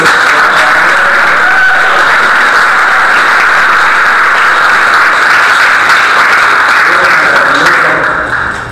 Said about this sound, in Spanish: Denle un aplauso.